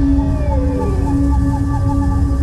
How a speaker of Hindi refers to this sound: आसपास जानवरों के रोने और चिल्लाने की आवाजें हर तरफ आने लगी